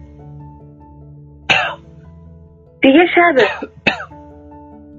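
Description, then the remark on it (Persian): While smoking a cigarette, someone gives a single sharp cough, then a heavy, drawn-out coughing fit and one last hack, loud over a steady low hum, with a voice speaking briefly. “سیگاری آتش می زند شروع می کند به نوشتن پک می زند صرفه می کند سنگین و کشدار ریسه می سیگار را خاموش می کند”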